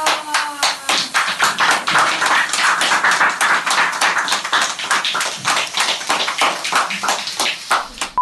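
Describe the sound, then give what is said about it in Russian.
A crowd gathered to honour Gorbachev claps steadily and loudly for about eight seconds, a dense, continuous patter of many hands with a few faint voices briefly rising in the opening moments. “да, по, по хлопкам собрались люди все-таки.”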